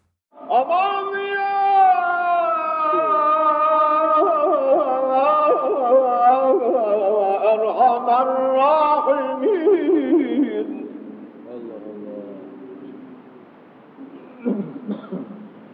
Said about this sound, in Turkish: sesinden güzel bir kaside dinliyoruz efendim.